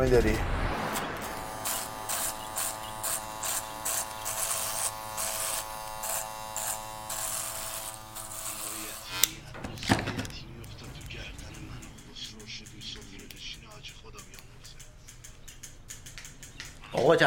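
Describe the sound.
Electric hair clippers buzz loudly and steadily for several seconds, a dense droning hum, then cut off, leaving quieter barbershop background with voices talking.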